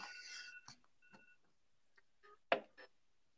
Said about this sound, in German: Oh nein. Ja, diesen Wecker meine ich. Bip, bip, bip. Ja. Oh! Die Wecker sind schlimmer als bei Samsung.